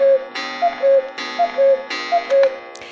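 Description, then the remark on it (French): A cuckoo clock sounds three times, each two-note cuckoo call paired with a burst of mechanical whirring and clatter, steady, with no voices. “Le coucou dit que c'est la deuxième partie de notre émission”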